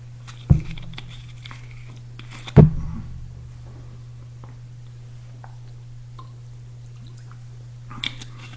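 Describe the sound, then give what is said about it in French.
Someone takes a quiet sip of water, with two sharp knocks like a glass being lifted and set down and faint mouth sounds over a steady low hum. “permettez-moi que je prenne une petite gorgée d'eau, j'ai très soif.”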